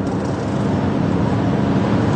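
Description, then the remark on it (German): A steady, even rumble of tires rolling on pavement and wind rush as a Mustang Mach-E GT electric car, lowered one centimetre compared with the standard versions, drives along the road, continuous and fairly loud, with no voices. “Das Auto ist einen Zentimeter tiefer gelegt als die normalen Versionen vom Mustang Mach-E.”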